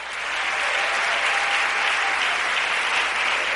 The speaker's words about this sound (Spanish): Le quiere dar un aplauso fuerte a ese Señor. Es más grande.